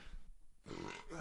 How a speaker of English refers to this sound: Gesundheit. Thank you.